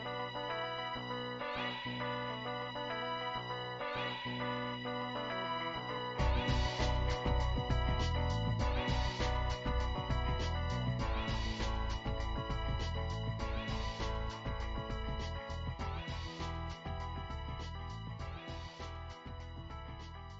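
An electronic pop track plays on its own, opening with sparse synth stabs before a full beat and driving synth layers kick in around six seconds, staying loud and steady.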